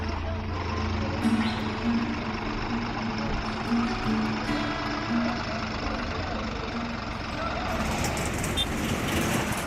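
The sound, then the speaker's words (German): Diesel tractor engines chug steadily through the streets of Turgutlu, a small town in western Turkey, their low rhythmic throb continuous and loud against a busy street background of other engine noise. “Traktoren tuckern durch die Straßen von Turgutlu, einer gesichtslosen Kleinstadt im Westen der Türkei.”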